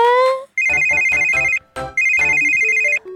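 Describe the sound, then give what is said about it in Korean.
A phone ringtone for an incoming call plays loudly, a bright electronic melody in two repeated bursts with a short gap between them, no voices present. “아, 오늘쯤은 연락이 와야 하는데”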